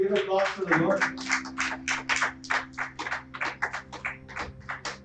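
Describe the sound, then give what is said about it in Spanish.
A church audience breaks into applause for the Lord during a sermon, many hands clapping in dense, roughly rhythmic bursts for several seconds, with a steady low tone held underneath throughout. “Un aplauso al Señor.”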